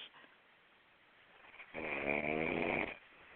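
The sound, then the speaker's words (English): A single loud, rasping snore from a caller who has fallen asleep on a phone line rumbles through a narrow, telephone-like band after a quiet stretch of faint breathing noise, lasting about a second before cutting off. No one speaks. “Oh, somebody is snoring.”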